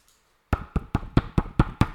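Seven quick, even taps on a book cover after a short silence, each a dull, firm knock in a steady rhythm, with no voices.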